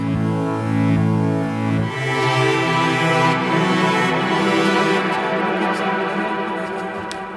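A loud, continuous electronic music track with dense, sustained layered tones that shift in texture partway through, and sharp clicks near the end. No one speaks.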